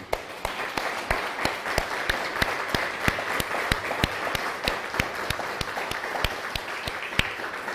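Steady applause from an audience, with sharp claps standing out at a fairly regular rhythm over a continuous wash of hand-clapping, holding an even loudness throughout with no voices.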